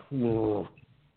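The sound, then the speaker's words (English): A single drawn-out human yawn, voiced and fairly loud, rising into a sustained groan for about half a second before trailing off into quiet breath. “In a nutshell, and I'm going to yawn.”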